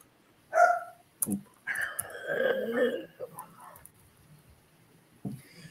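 A dog gives two sharp barks, then a longer stretch of strained, whiny yelping before falling quiet, with a brief final bark at the end.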